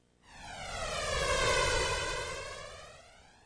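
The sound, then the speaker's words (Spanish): A roaring aircraft engine swells up quickly as a plane takes off, peaks loud, then slowly fades, its whine sweeping downward as the plane passes overhead. No voices. “Me acuerdo la vez que fuimos a ver despegar los aviones a la reja del Jorge Newbery.”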